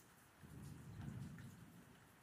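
Steady rain falls outside at night, hissing throughout while a deep roll of thunder swells and fades in the middle; no one speaks, and the whole scene is fairly quiet.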